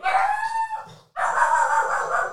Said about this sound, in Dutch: Eh, de hond. ik denk eh, dat de hond gehoord wordt op de podcast. Ik weet het niet zeker, maar dat denk ik wel.